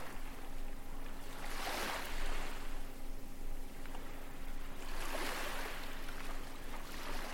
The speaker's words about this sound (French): Du bruit des vagues qui, au loin, se cassent sur des rochers